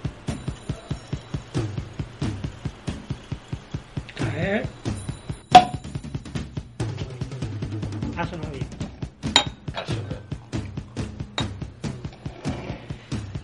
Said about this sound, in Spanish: un espumoso andaluz del Aljarafe sevillano llamado un bretum, que nos encanta. Vamos a abrir la botella.